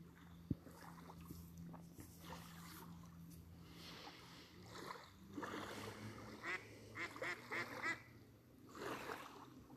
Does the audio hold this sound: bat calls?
no